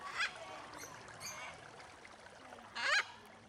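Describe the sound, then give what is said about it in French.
Two loud, harsh honking bird calls from a free-roaming flamingo and parrot ring out a few seconds apart, with fainter squawks between them, over a steady background of trickling water inside a large covered dome sheltered from wind and rain. “Il y a même des gros poissons, un flamant rose et un perroquet en liberté.”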